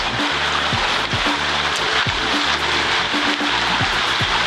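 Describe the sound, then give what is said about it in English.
Steady rushing of river water flowing across a ford on a road, a loud continuous wash with a low rumbling hum beneath it and no voices. “So there's this ford. It's a fucking. It's a river.”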